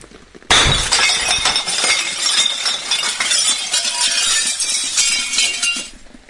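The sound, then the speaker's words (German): A window pane is smashed with a stone: a sudden loud crash of breaking glass, followed by several seconds of shards tinkling and clattering down, with no voices. “Also irgendwie fehlt hier auch dieser Diamant, mit dem man in die Scheide Scheide schneiden soll, äh, in die Scheibe schneiden soll.”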